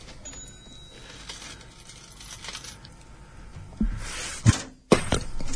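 Metallic clinking and jangling of coins and a cash register starts faint and grows into a few sharp, loud clattering bursts near the end, with no voices.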